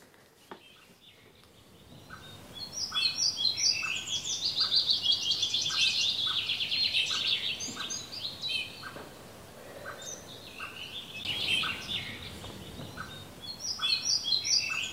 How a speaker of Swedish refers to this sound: Ehm, kan det här vara större hackspett som, no. som säger pjupp pjupp här? Ogärna. Du tror att det är en vitryggig hackspett?